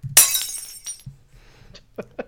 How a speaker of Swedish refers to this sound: Ett krossat glas där. Ja, ja precis. Det kan vara en champagneflaska som man inviger ett, en båt med. Det kan också bara vara den tappade flaskan.